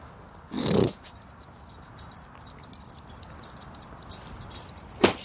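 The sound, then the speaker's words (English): A dog called Zubber Dog shuffles about, its tags or keys jangling in a short burst near the start, then quiet movement and a sharp metallic clink at the end. No one speaks. “Come on, Zubber Dog.”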